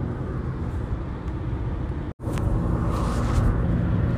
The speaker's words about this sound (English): Okay, we're back. Still in the car.